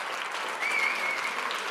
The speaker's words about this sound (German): Ich möchte gerade mein Team, die bei der Umsetzung dieses Projekts geholfen haben, einmal kurz nach oben bitten. Einmal kurz aufstehen, Ladies. Und einen kleinen Applaus für die Mannschaft.